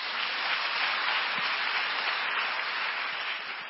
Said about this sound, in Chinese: 我们拍手欢迎他。